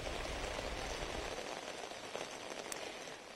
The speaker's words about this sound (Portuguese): Isso mesmo, o super tufão vai atingir Tóquio no final da tarde de hoje, sábado aqui no Japão. Já chove há um bom tempo, a chuva inclusive se intensificou bastante aqui agora.